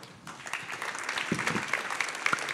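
An audience claps steadily, a dense crackle of many hands starting abruptly and holding at an even, moderately loud level throughout, with a few sharper individual claps standing out.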